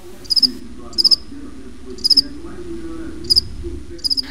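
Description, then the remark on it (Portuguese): A cricket chirps, making the sound with its wings, in short, sharp bursts of three or four pulses, repeating roughly every second over a soft, low background hum. “Certamente você já ouviu o som de um grilo.”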